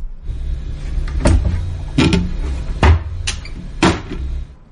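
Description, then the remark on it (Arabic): Four sharp scraping strokes of knives cutting at irregular intervals, each a brief rasping burst, over a steady low background hum with no talking. “تقطيع تقطيع بالسكاكين ذا خلاص اثبتها لك انه في تقطيع بالسكاكين ايه يقطع قطع”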